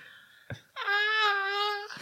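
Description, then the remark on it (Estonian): A voice mimics a baby's wail: one sustained, wavering cry lasting about a second, loud, preceded by a short breathy burst and ending in a brief trailing sound. “see on imik lihtsalt.”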